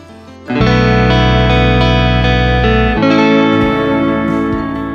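Loud instrumental music with sustained, effects-heavy electric guitar chords and a deep bass, starting after a brief quiet intro and shifting to a new chord around the midpoint, with no voices.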